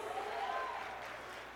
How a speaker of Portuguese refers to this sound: Aleluia! Aplauda ao Senhor em nome de Jesus.